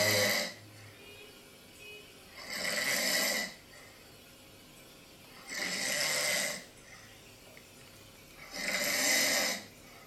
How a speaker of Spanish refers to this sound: Si se detecta ronquidos, entonces se corta la película de Netflix y se apaga la luz.